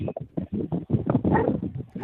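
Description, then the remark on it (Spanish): A dog at a circus barks in a rapid, steady series of short yaps over a couple of seconds, moderately loud, with no talking. “Fíjate lo que es vivir en el circo, Ricardo, que se oye el viento, se oye el perro”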